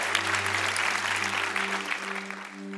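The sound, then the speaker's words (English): A church audience applauds steadily to give God praise, a dense wash of clapping that holds at an even level throughout, with a low sustained tone humming underneath. “Let's give God praise.”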